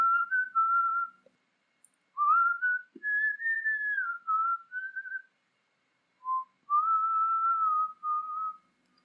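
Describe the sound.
Someone whistles a slow, wistful melody with clear, sustained mid-high tones, phrased in three gliding passages separated by short pauses, the tune of a rock ballad, with no talking.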